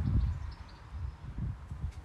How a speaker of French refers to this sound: Non, le vent.